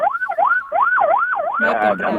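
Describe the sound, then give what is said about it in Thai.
A wailing ambulance siren passing on the road sweeps up and down in a fast, repeating pattern, loud, with a second harsher siren tone joining near the end. “หลีกทางให้รถพยาบาลหน่อยนะคะอาสัญญาณเร่งด่วนมาเลยทีเดียวนะคะรถพยาบาลหรือว่าเขาเรียกอะไรนะแอบูเลนต์”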